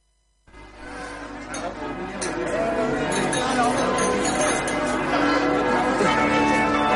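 Church bells peal continuously after a brief silence, their overlapping metallic tones building into a loud, dense ringing that carries steadily to the end.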